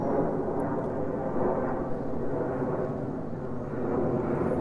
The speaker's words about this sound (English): I'll be on one of those tomorrow on uh, Monday, Sunday morning. On a plane.